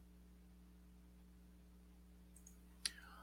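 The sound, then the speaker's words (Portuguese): A steady low electrical hum fills the quiet, then a couple of faint taps and one sharp keyboard key click arrive near the end, as Fluffy the cat walks across the keyboard on a table. “Ela estava ela tava aqui em paz, quietinha, mas ela queria passear pelo teclado, aí não dá não.”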